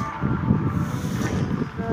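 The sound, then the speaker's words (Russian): Strong wind buffets the microphone outdoors in a large place with many people, in a constant, loud low rumble with gusty fluctuations throughout, with no other sounds standing out. “Сейчас, ой, сейчас зайду чуть-чуть хотя бы где поменьше ветра, а то вообще ничего не будет слышно.”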